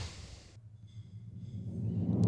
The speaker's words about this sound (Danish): Trommevirvel. Trommevirvel, og så kommer klaveret.